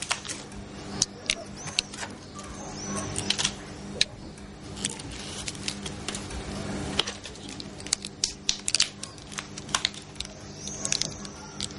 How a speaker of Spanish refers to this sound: Marcela vacía los blistres en el cuenco, que ya está lleno de pastillas.